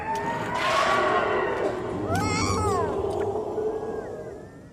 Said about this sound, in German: Und hier kommt dieser Schrei von diesem kleinen Baby Yoda, der offenbar gerade aufgewacht ist und feststellt, ich bin allein,